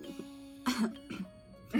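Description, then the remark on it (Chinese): A couple of sharp, throaty coughs break out, the first loud and rough, followed by a smaller one and another burst at the end, with a faint steady hum underneath. “你咳嗽是什么意思？”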